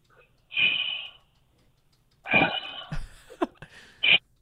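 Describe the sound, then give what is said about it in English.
A voice imitates mechanical respirator breathing: two long, hissing breaths with a pause between, followed by a few sharp clicks and ticks. It is fairly loud, with no talking. “Oh, you know what? Darth Vader's That's there, life. Man. That's life. That's life. He's breathing. He's breathing.”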